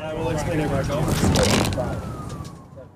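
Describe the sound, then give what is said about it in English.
An ambulance siren in a staged scene shot as if on an iPhone wails through dense street noise, its tone sliding downward toward the end, with indistinct voices and traffic rumble mixed in throughout. “so the ambulance scene was a staged thing, intentionally shot as if it were on an iPhone.”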